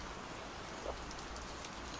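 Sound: rain falling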